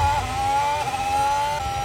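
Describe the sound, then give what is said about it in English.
A loud, high-pitched engine of Charles Leclerc's Formula 1 car screams on an onboard lap, its whine climbing and then dropping abruptly with each quick gear change, three shifts in under two seconds, with no voices. “So we're going to go on board here now, guys. We're going to go on for one full lap.”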